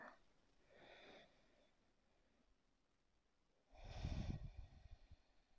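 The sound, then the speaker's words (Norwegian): A slow, deep inhale through the nose, airy with a slight snuffling rasp, following an earlier, softer breath. No one speaks. “Og for hver gang jeg puster inn”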